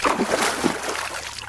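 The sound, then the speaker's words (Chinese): An elephant plunges into seawater with a loud, full splash, followed by churning, sloshing water that tapers off over a second or so, with no voices. “有一天，大象掉进大海里”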